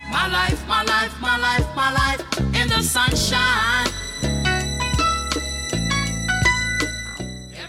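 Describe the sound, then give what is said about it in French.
A shrill, synthesized violin-like note rings high above a full electronic song, holding steady over pulsing bass and chords, fairly loud with no voices. “Vous entendez cette petite note stridente là Pour moi, c'est celle qui fait le lien entre les différentes parties de la chanson.”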